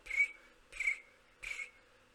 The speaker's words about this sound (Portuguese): Agora quando eu falo de volta, ela tá só o grilo, só.